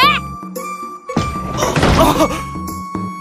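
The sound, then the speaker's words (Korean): A sharp slap on the cheek lands midway through, followed by a second or so of noisy, clattering commotion, with soft musical tones sustained in the background. “결국 흥부는 쌀은커녕 뺨만 얻어맞고 쫓겨나고 말았지요”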